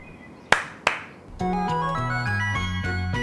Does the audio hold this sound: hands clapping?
yes